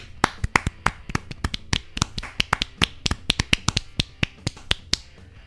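Hands clapping in a quick, slightly uneven run of sharp, crisp claps lasting several seconds, with no voices over them.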